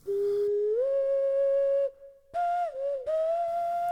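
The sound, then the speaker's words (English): A hollow, hooting whistle blown through cupped hands, sliding upward into a long steady note, breaking off briefly, then returning in two shorter wavering tones. Fairly loud, with no talking. “It all started in the summer between third and fourth grade when Granddad introduced me to the ancient hand whistle.”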